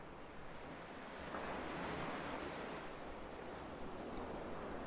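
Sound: ocean waves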